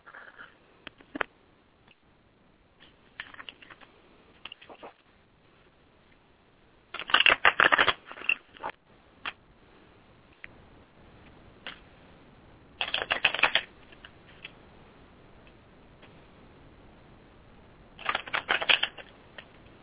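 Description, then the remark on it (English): Tarot cards being shuffled for an intuitive general reading, with three dense riffling bursts around seconds 7, 13 and 18, separated by quieter stretches of soft card handling and small taps; no voices. “Just give me a moment to shuffle.”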